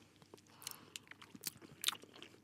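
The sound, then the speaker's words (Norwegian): Wet chewing of soft mochi ice cream, its rice dough soft and not frozen, with irregular sticky smacks and a few sharper mouth clicks over a quiet background; no talking. “Risdeigen er jo helt myk.”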